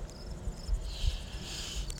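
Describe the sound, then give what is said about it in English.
Crickets chirp steadily in a field, a high continuous trill with a second insect chorus swelling in partway through, over a low rumbling outdoor background. “Crickets in a field”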